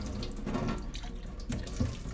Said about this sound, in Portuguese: Num ensejo totalmente diferente. Longe de tudo, lavando louça. Porque louça é algo que a gente carrega para onde quer que a gente vá, né?